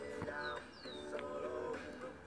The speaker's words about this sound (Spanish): ahí llegaron los pajaritos amigos.